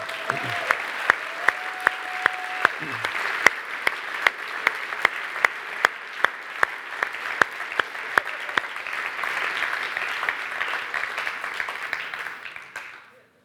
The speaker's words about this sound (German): Wir können eigentlich am Ministry Team einen Applaus geben. Komm on.